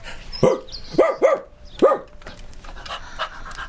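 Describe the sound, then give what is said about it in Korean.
A mixed-breed rural dog that looks like a Siberian Husky pants and huffs in a few short, uneven bursts with a breathy, whining edge, followed by quieter rough breathing and faint background rustle. “얼핏 보면 시베리안 호스키를 닮았지만 역시 넌 똥개야. 전형적인 시골 똥개.”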